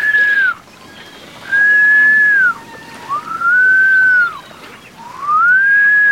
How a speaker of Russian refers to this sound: Вызываю ветер. Его же можно насвистеть. Известное дело.